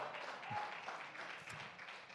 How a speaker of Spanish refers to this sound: Mm, usted no está muy convencido. sus, esos sus aplausos son sin fe, así.